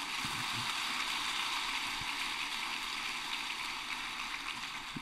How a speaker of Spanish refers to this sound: Dale un fuerte aplauso al Señor.